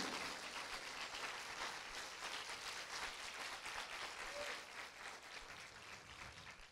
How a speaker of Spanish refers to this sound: Apláudale fuerte.